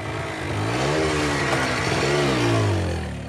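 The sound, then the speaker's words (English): A small moped engine revs up and down twice in close succession, its buzzing pitch rising and falling steadily and fairly loud, with no voices. “And since I had a moped to get me to and from it, caddying would work just fine.”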